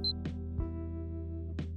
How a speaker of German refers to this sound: Und der Timer hat gerade geklingelt, falls es gehört hat.